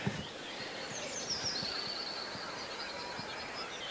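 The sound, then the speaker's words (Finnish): A northern lapwing, picked up by a field microphone, gives thin, high wheezy calls over a steady hiss, while the faint low bubbling of a black grouse murmurs continuously far in the distance. “Teeri kuuluu todella kaukana ja tää on töyhtöhyppä siis.”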